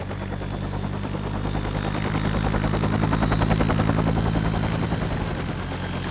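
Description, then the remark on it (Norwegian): A helicopter rotor thuds steadily with a rapid, rhythmic chop over a low engine drone, loud throughout, no voices heard, as uniformed military men in camouflage pick people up and carry them into the helicopter. “Og kommer bare og plukker oss opp og bære oss inn i helikopteret.”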